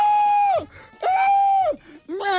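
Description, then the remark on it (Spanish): A voice imitates a woman screaming: three loud, high-pitched sustained cries in quick succession, each sliding downward at the end, with brief breathy gaps between them. “Y la señora gritando ¡Ah!”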